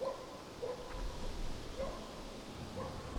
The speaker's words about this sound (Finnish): Ja ihan tässä ympärillä asuu ihmiset. Koirat haukkuu.